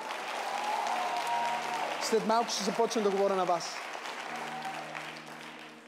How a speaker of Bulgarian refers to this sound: Жените имате шанс да пляскате сега.